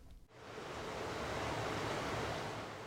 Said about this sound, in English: There's a creek running through Sue Lavin's backyard, about 20 feet away from the house. She lives alone and says the running water makes for good company.